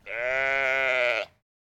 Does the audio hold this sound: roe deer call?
yes